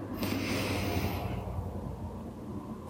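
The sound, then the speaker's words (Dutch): A breathy rush of air drawn in deeply through the nose for about a second, then fading into quiet room tone. No one speaks. “Dus je ademt even in door je neus.”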